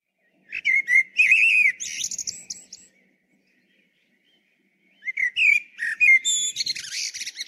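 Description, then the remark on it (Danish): A common blackbird sings two clear bursts of warbling, fluting song separated by a pause of silence, the phrases rich and varied with high twittering flourishes, alone. “Det er en solsort. Det er en ægte forårsbebuder.”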